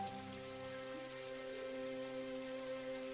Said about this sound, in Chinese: 雨静悄悄地下着，只有一点细细的、淅沥沥的雨声。